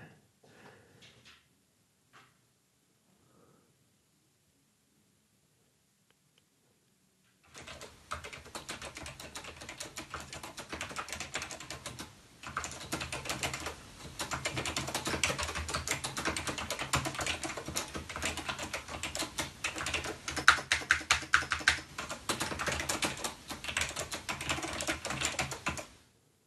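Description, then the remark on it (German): Brisk, continuous typing on a computer keyboard, fairly loud, with dense clattering keystrokes running for about twenty seconds after a quiet opening. “Habe ich eine kleine Soundaufnahme von dem Keyword gemacht.”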